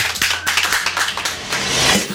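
A small studio audience claps steadily for about two seconds, a dense patter of hand claps at moderate volume with no voices over it.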